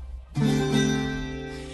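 A single bright chord strummed on a tiple rings out suddenly after a brief quiet moment, its many strings sustaining and slowly fading, heard alone and fairly close.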